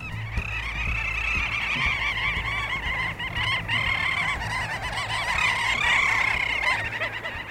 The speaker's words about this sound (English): These are little auks black and white birds that breed on Arctic islands, and there were zillions of them on Svalbard when I was there, swirling around in the sky and making this noise pretty much 24 7. That is kooky, isn't it?